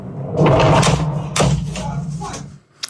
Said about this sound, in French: Des explosions ont été entendues dans tout le pays.